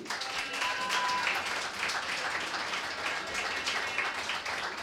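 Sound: audience applause and noise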